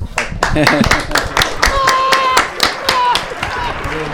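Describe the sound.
A short round of applause: a steady patter of sharp claps for about four seconds, with voices and a bit of laughter mixed in over it.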